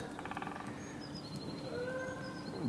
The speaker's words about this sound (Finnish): Vai vaiko kanadalaisia? Joo, se kanadalaisia. Mä tästä ne on lennossa jo. vielä. Joo. Siis Kanadan hanhi. Niin, Joo. Että... Kanukit. Lentää.